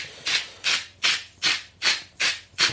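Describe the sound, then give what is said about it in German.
Sea salt being ground in a hand mill: seven crisp, gritty crunching bursts in a steady rhythm, each a short rasping twist, with no talking. “Aber eigentlich stehe ich so total auf dieses Meersalz von der Mühle hier.”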